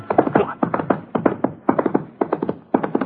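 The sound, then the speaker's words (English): Horse hooves clop at a steady trot as a rider sets off toward town, fairly loud, in repeating clusters of three or four sharp knocks that keep an even rhythm throughout with nothing else in the background. “I sort of sneaked out the front door and climbed into the saddle. Let's go, boy. Come on.”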